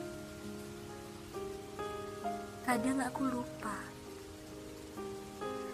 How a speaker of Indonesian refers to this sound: Ya, hujan.